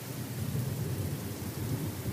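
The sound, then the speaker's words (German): A thunderstorm with constant lightning: heavy, steady rain hisses throughout while deep, continuous thunder rumbles underneath, fairly loud and unbroken for the whole moment, with no voices. “Es ist nur noch hell am Himmel. Die ganze Zeit. Es blitzt in einer einzigen Tour.”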